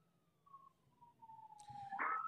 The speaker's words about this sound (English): Fire truck.